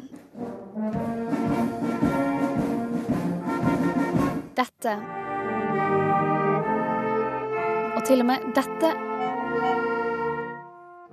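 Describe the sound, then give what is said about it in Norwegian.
The Smestad school marching band rehearses the Norwegian national anthem 'Ja, vi elsker' before Saturday's Constitution Day celebration, playing in full, sustained brass-heavy chords. The music breaks off briefly midway, then resumes with long held tones while a voice speaks briefly. “Smestad skolekorps er i innspurten av det som skal bli lørdagens store fest.”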